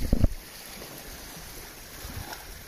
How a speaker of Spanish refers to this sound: Y empieza a respirar lento y profundo. Siente el sonido del mar y relájate.